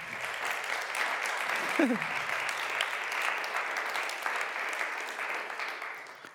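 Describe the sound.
Steady applause from a crowd on Good Friday fills the whole stretch, a dense, even patter of many hands clapping at moderate volume, with a brief voice-like murmur near the start.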